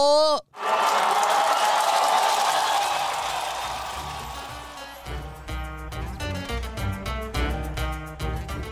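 An audience breaks into loud, steady clapping with a cheer mixed in, lasting about four seconds before fading as rhythmic music with regular beats takes over.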